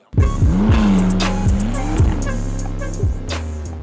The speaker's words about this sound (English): instead speeding away in his McLaren sports car.